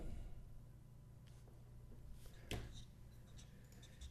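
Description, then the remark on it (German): Soft scratching of pens on paper as quiz players write their answers: faint, irregular strokes over a low background hum, with a slightly louder scrape partway through and no talking. “Stifte scratchen.”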